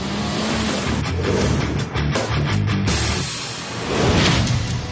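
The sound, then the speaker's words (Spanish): A snowmobile engine roars steadily and loudly, its pitch rising and swelling in revs toward the end, with no voices over it. “Pero por muy modernas que sean las motos de nieve, siguen generando una tremenda cantidad de vibraciones que se transfieren al suelo.”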